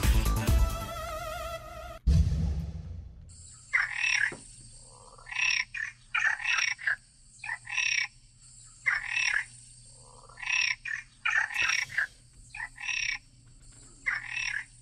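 A brief musical sting gives way to a frog croaking in a steady series of loud, raspy bursts, roughly ten of them, over a low continuous hum.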